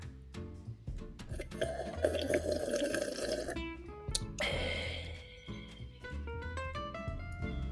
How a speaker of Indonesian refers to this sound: ya udahlah permisi seruput kopi lagi lah